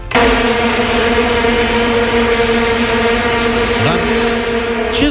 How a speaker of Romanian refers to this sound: zgomot se aude, băzăit ca de albine. Toți se uită cu mirare și nu știu de unde vin. nu sunt albine, zbuvuzele, dacă ați uitat de ele. Deși eu cred că sunt de neuitat.